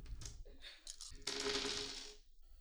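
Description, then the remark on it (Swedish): Nine dice are rolled onto a hard table for an attack roll in a tabletop game, a quick burst of sharp rattling clicks swelling into a dense tumbling rattle before settling, fairly loud with no talking. “Var det nio tärningar? Ja, det är nio tärningar.”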